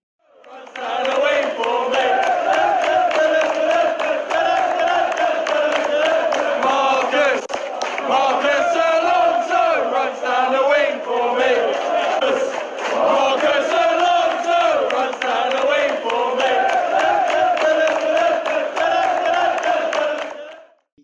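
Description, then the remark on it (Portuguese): A stadium crowd of football fans sings a loud, sustained chant in unison for footballer Marcos Alonso, with the words "Marcos Alonso runs down the wing for me", the massed voices carrying a steady melodic rhythm for about twenty seconds with a brief dip in the middle. “É, a galera só canta mesmo pro Marcos Alonso e fala no final, é, faz a ala para mim, uma coisa de, dessa forma, mais ou menos isso.”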